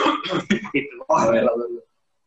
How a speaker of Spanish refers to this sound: Güey, espérate, es que empecé a toser cuando estabas hablando, perdón.